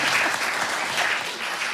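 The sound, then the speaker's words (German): A burst of audience applause, many hands clapping in a dense, steady crackle that stays fairly loud throughout, with no one speaking over it. “Jetzt, ähm, ja, Applaus.”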